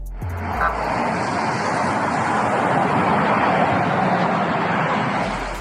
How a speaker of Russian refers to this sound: Местные соцсети взорвало видео проезда президентского кортежа.